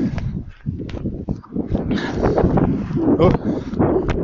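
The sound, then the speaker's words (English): Wind buffets a microphone with a steady, loud low rumble that gusts and swells throughout, while a person speaks briefly over the noise. “it's quite windy right now”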